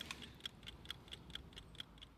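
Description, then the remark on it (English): Steady, quick ticking from clocks in a shop, about ten sharp clicks in an even rhythm, fairly quiet, with no voices over it. “You this is a little uh, a little dog, and we're talking about the eyes of the dog, which tell yeah. the time.”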